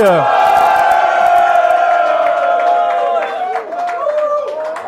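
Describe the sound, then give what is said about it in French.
A live audience at the Hard Rock Café Paris cheers loudly, a dense wall of shouting and whooping voices with scattered clapping, holding strong throughout before easing slightly near the end. “Ça grésille un peu dans nos casques tellement vous êtes puissants”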